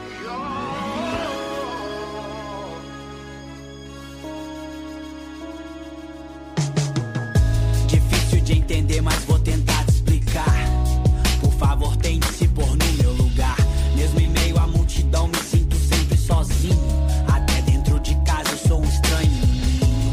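A rap track plays, opening with a soft, sustained melodic intro before a loud beat kicks in with booming bass and punchy, steady drums that carry through to the end.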